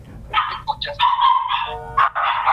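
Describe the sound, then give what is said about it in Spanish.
A pack of dogs right next to the speaker barks and yelps together nearby, a loud overlapping run of sharp, high barks that keeps going with only brief gaps, with no talking over it. “No sé si se escucha la jauría de lobo que tengo acá al lado.”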